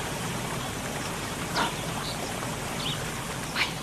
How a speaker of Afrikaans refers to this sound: Liewe Vader, dis damwater wat hier loop. Wat water loop die wêreld vol. Dit, dit dit moet gestop word.